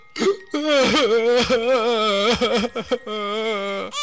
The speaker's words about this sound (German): Das, das war doch nur eine Geschichte. Bitte hör doch auf zu weinen. Es ist alles gut.